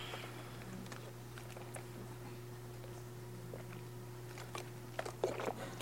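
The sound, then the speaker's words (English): Quiet mouth sounds of someone sipping water: faint little clicks over a steady low hum, then a brief cluster of wet swallowing noises near the end. No one speaks. “Okay, I'm going to read one more short section after a sip of water.”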